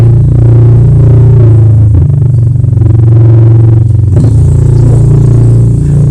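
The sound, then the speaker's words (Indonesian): A Honda Supra motorcycle engine roars loudly with a steady, throaty drone, its pitch rising and dipping slightly, broken by two brief rattling revs. No one speaks. “Supra geledek ya.”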